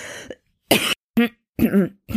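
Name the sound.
coughing and throat clearing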